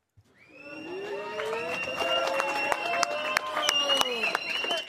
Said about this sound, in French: C'est sous les applaudissements de ses soutiens que le père de la petite fille agressée est sorti du tribunal.